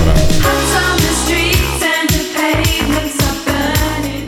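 A pop song recording plays loud and steady, with a punchy bass line, layered bright instruments and a driving beat filling the whole stretch, and no one talking over it.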